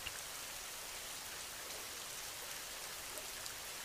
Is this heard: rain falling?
yes